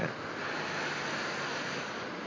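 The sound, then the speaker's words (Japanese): A steady, hissing wash of ocean surf rolling onto a beach, fairly loud and continuous for a couple of seconds, with a faint windy rumble underneath and no voices. “そんなことを思い出しながら、ちょっとこの海岸から立ち去ろうと思います。”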